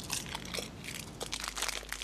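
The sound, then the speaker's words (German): A plastic bag holding spiced almonds left over from Christmas crinkling as someone eats from it, in a continuous stretch of dense, crackly rustles with bright, irregular bursts, fairly loud and steady throughout, with no talking. “Ein bisschen in so einer Plastiktüte. Ah. muss schon ein bisschen knistern.”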